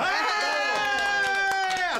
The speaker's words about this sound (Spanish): Pido un aplauso para la palabra pene, por favor, todos los secretarios que se escuchen. Exacto. Pido un, aplauso para la vagina